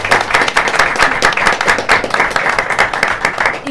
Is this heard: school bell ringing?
no